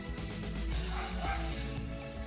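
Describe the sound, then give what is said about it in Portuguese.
Dogs bark steadily throughout because someone arrived knocking at the door of the house, a dense run of overlapping yaps and woofs from more than one animal, loud, with a faint voice underneath. “peço já desculpas pelos meus cachorros também, porque chegou alguém batendo na porta da minha casa”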